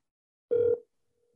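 A phone call's ringing tone: one short, steady mid-pitched electronic burst lasting about a quarter second, followed by silence, with a faint trace of the tone returning at the very end. No voices.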